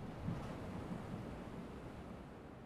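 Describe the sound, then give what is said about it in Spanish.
Steady wash of ocean surf against the shore, a broad continuous roar with soft swells rising and falling, heard alone with a faint windy hiss. “Mucho tiempo pasó allí, escuchando el batir de las olas contra la orilla.”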